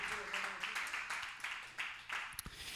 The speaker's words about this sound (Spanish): Amén y amén otro aplauso al Señor, al Espíritu Santo, que es nuestro Maestro.